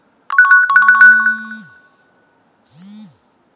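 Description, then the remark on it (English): A loud electronic phone ringtone plays a quick, trilling run of bright tones, pauses briefly, then starts a shorter second burst before cutting off. No one speaks. “oh, one moment, I have to cut off this fall.”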